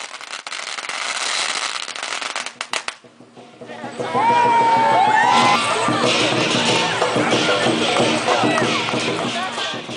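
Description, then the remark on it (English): A lion dance celebration in the Seattle Chinatown International District, with dancers wearing a brightly colored mythical lion costume: a dense burst of crackling firecrackers for a few seconds, then a loud, busy crowd with voices, whistles and cheering filling the street. “These dances are noisy, energetic performances where a couple of dancers wear a costume for a brightly colored mythical lion creature. Here are some sounds of a celebration in the Seattle Chinatown International District.”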